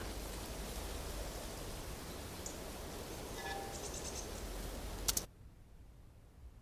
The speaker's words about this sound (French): Et puis euh, les éléments qui se rajoutent, c'est des petites branches du vent dans les roseaux. Quand il y a la bourrasque, il y a même un vent euh, dans les herbes qui donne un peu plus de, de matière.